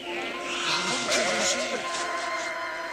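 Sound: sheep bleating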